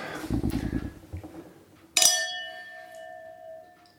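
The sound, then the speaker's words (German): Glasses clink together once in a toast, bright, leaving a clear ringing tone that slowly fades. Muffled handling noises come just before the clink. “Okay, Prost”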